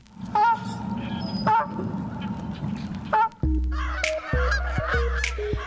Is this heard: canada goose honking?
yes